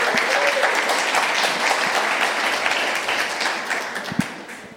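A crowd applauds a pastor being introduced, steadily for several seconds, a dense wash of many hands clapping at even loudness with no voices standing out, then it begins to thin slightly toward the end.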